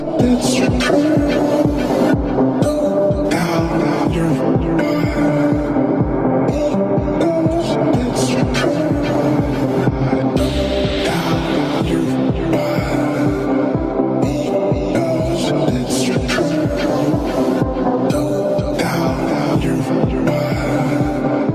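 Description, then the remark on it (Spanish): A catchy song plays loud and steady throughout, driven by a thumping regular beat under dense layered instruments, with no talking over it. “escucha esta canción un poco pegajosa, ¿no?”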